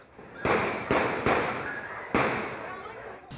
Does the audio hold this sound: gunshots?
yes